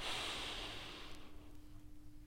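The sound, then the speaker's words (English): A slow, deep inhalation demonstrating controlled conscious breathing, a broad airy hiss that swells at first and then gradually fades over about two seconds, with no talking. “So, in controlled conscious breathing, you're breathing in like this,”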